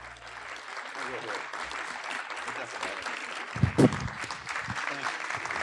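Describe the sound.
Steady, dense clapping from a large audience welcoming Mel Gibson after a film screening fills the whole stretch, a broad crackling wash with a brief louder burst near the middle, with faint voices mixed in beneath it.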